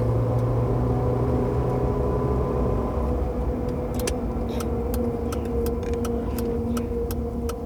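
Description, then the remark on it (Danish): Steady engine hum and road rumble from inside a car driving north in Sweden, with a constant low drone and faint rhythmic ticking, like a turn signal, in the second half. “Vi kører bare videre nordpå.”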